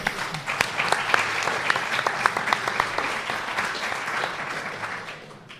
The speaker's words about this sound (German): bitte einmal auf die Bühne. Applaus.